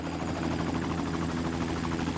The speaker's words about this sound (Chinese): 哎，结果没拦住，这飞机就飞上天了啊！